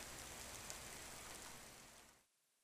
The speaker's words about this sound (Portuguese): Dia de chuva.